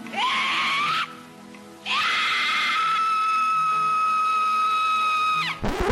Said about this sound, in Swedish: De spelade också upp det här klassiska Carola... Ja, just det. Ja, det är väldigt roligt. När hon freakar ut. Skriker.